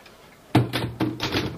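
After a brief quiet moment, a typewriter clacks out a quick, steady run of about five fairly loud keystrikes, each a sharp mechanical snap, with no voices.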